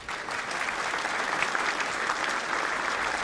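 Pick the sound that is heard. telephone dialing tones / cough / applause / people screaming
applause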